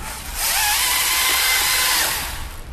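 A loud, steady electric chainsaw whine kicks in after a brief moment, holding a high buzzing drone with slight pitch wavers as it cuts, then easing off near the end.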